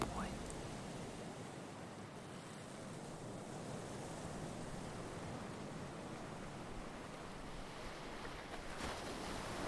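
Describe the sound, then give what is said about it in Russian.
A steady, gentle wind rustles through grass along a forest path at night in a continuous soft hiss, even and unbroken throughout, with no voices and no distinct individual sounds standing out. “Ветер осторожно колышет траву, а деревья как будто переговариваются между собой.”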